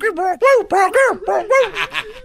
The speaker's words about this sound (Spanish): El perro va corriendo, güey. Es como un golden retriever. Y el perro va corriendo y la ambulancia va siguiendo al perro como ¿pa' dónde? ¿pa' dónde?